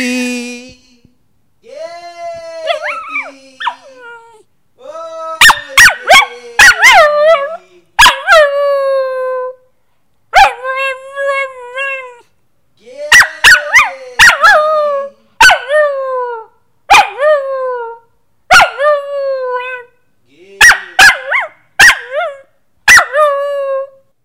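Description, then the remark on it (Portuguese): A dog howls in response to its name being called, in a series of loud, wavering, wolf-like cries, broken by sharp yips and short barks, with brief pauses between each burst. “Eu vou mostrar para você como ele dá uma uivadinha.”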